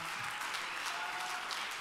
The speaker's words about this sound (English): Why don't you give the Lord a praise tonight? Give him a praise today. Lift your voice with that hand clap.